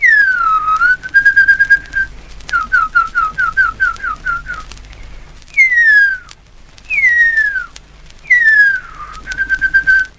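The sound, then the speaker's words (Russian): In an archival mid-20th-century recording, an elderly Maori hunter who heard huia as a child whistles an imitation of the extinct huia's song: long descending whistled glides alternating with quick rhythmic trills of short notes, clear and fairly loud over a faint hiss. “Но недавно всплыла архивная запись середины 20 века, где пожилой охотник Маори, слышавший Гуя в детстве, очень точно насвистывает их песню.”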